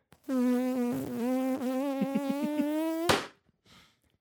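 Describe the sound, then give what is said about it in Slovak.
A voice imitates a fly with a steady, wavering buzz for about three seconds, fluttering in pitch, then cuts off abruptly with a sharp burst, followed by a faint short sound, as a joke about killing a fly. “A to bolo, že no, začínalo to normálne reálnym zabíjaním muchy, že niekto začal robiť muchu”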